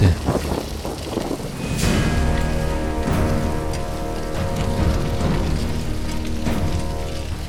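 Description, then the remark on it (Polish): Heavy autumn rain pours steadily on a road near Ede, west of Arnhem, in a dense, continuous hiss, fairly loud, with low rumbling and a faint sustained musical hum underneath, and no voices. “Peter Jensen sprawiał wrażenie, jakby deszcz nie robił na nim wrażenia.”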